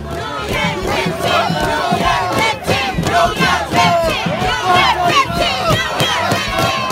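A large protest crowd of mostly black union workers in Detroit chants and shouts together at a 2019 protest where Rashida Tlaib was arrested, many loud overlapping voices rising and falling in pitch, sustained without pause for the full seven seconds.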